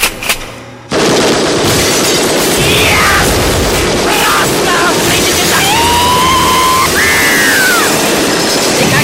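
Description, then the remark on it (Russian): After a brief near-silence, loud automatic gunfire from a collection of firearms being tried out erupts in a dense, unbroken roar lasting several seconds, mixed with shattering glass and scattered high, ringing whines. “Ну что ж, давайте посмотрим, как это работает.”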